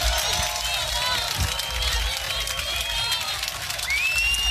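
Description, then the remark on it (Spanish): A large crowd applauds loudly and steadily for several seconds, with cheering voices mixed in and a rising whistle near the end. “¡Fuerte aplauso!”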